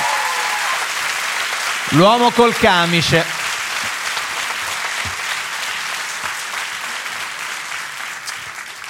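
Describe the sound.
A large audience claps steadily for the whole stretch, a dense, even wash of applause, while a man's voice briefly calls out over it near the start.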